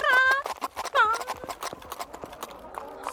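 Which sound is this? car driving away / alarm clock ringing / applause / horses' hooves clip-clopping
horses' hooves clip-clopping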